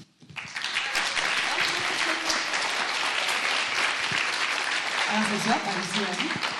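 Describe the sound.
Sustained audience applause, a dense wash of many hands clapping at once, loud and steady for several seconds, with faint voices murmuring underneath.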